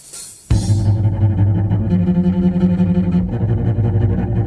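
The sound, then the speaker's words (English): A heavy, experimental metal song opens with a brief, fast hi-hat count-in. A loud, dense, distorted band crashes in with sustained low cello tones droning through the mix. “this opens with a fast kind of hi hat count in, and then you get cello.”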